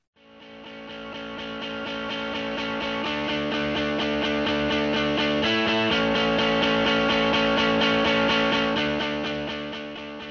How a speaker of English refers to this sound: The theme music has been provided by ….